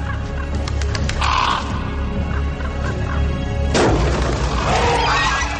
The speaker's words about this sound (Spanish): en todos esos pájaros. Esos bichos siempre están esperando a que algo se muera para poder comérselo. Qué costumbre tan rara.